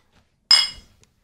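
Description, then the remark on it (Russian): A single bright clink of glasses touching in a toast, sharp, with a short ringing tail that fades within half a second in an otherwise quiet moment. “И ты хочешь чокнуться?”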